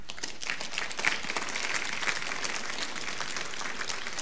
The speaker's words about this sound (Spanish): Un aplauso al Señor.